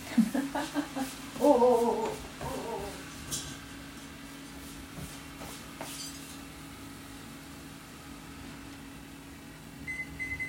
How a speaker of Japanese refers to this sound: はいあもしかしたらちょっとお湯が沸いたみたいなのでパスタを茹でてきますえっ、ー、と一旦ちょっとちょちょっと待ってて